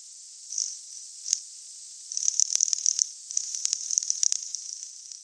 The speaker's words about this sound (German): Normalerweise klicken Schweinswale nämlich in einer so hohen Frequenz, die wir Menschen gar nicht hören können.